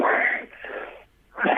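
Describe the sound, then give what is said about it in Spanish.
A breathy sneeze burst, then a softer wheezy exhale and a short pause before another rough, airy burst. No one talks. “Salud.”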